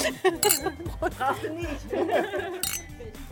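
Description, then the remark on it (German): Wine glasses clink together in a toast at a winery during the grape harvest, as helpers drink wines of recent vintages while destemming and pressing go on; several bright chimes ring out amid lively background chatter and a bit of laughter from a small group. “Und während das Entrappen und Pressen weitergeht, heißt es für die fleißigen Helfer Prost mit ein paar Schlucken der Weine der letzten Weinjahrgänge.”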